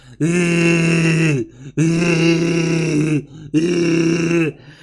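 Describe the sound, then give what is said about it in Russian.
A voice imitates the gagging and retching of a gag reflex with three loud, strained, low-pitched heaves, each lasting over a second, separated by short pauses. “И вот этот звук издаешь, потому что у тебя вот этот рвотный рефлекс, который выходит просто звуком”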